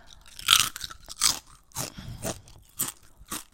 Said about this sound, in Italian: Ok, smetto, adesso smetto di mangiare le patatine.